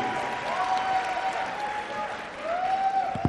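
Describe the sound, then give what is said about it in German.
Audience applause fills the whole stretch, a dense, steady patter of many hands clapping, with a thin whistle-like tone sliding over the noise twice. “Ja, so ein kleiner Applaus würde mir jetzt wahnsinnig auf die Leiter helfen hier.”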